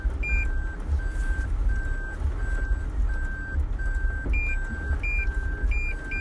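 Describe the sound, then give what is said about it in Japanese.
A car reverses into a narrow garage at a small house during a heavy downpour, its steady high-pitched reversing beeps repeating at an even pace over a low engine rumble and rain noise, with a second beep tone joining near the end. “ちょっと車庫入れが浅かったかな狭いんですね家がちっちゃいんでね”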